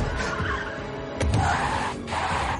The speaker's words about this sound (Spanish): Letty pisa el pedal de freno. El coche de Don la arrastra.